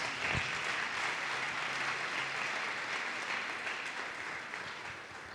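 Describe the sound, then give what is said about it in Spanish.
A church audience claps for the Lord in a dense, sustained burst of applause, steady and loud throughout before easing slightly toward the end, with no voices standing out. “Démosle un fuerte aplauso al Señor entonces.”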